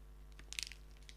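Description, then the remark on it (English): Chewing of a Built Bar marshmallow protein bar covered in white chocolate: a quick cluster of soft, crunchy bites near the middle, fairly quiet over a low steady hum, with no talking. “Ready for some ASMR chewing?”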